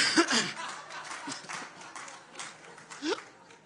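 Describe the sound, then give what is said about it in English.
An audience claps in a loose, scattered patter, mixed with bursts of laughter and a couple of short whoops, moderately loud and fading slightly before a last cheer. “why, why would you clap for that? Stop it. Don't encourage that.”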